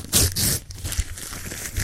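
Paper being crumpled to throw into the wastebasket: a loud, crackly burst of crinkling at the start, then quieter, uneven rustles and crunches that continue to the end, with no talking.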